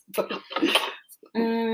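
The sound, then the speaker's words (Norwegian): A microphone stand that had slipped down is fastened back in place, with loud metallic clattering and clinking for about a second, then a short pause and a sustained, ringing metallic tone. “Um, Sorry bråket, folkens. Jeg må bare få festa det på plass.”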